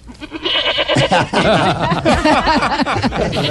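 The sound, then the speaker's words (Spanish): A person imitates a goat, letting out a run of wavering, quavering bleats in quick succession, loud, with hints of laughter mixed in. “Como hace una cabra.”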